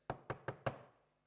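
knocking on a door

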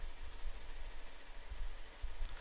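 train running

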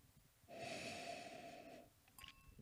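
sniffing wine

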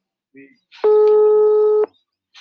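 telephone call tone

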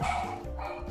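dogs barking

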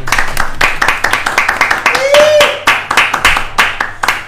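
studio audience clapping

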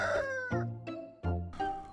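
hens clucking

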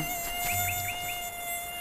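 mosquito buzzing

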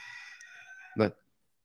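chicken clucking

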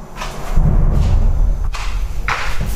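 thunder crack

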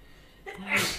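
sneeze

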